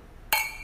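glasses clinking

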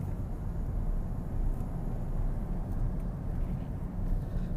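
car driving

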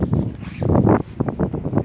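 wind blowing outdoors

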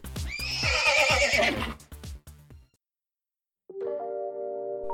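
horse neighing

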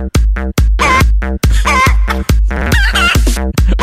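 chicken clucking

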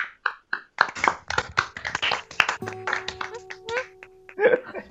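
round of applause

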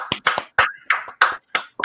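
clapping

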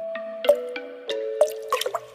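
water dripping

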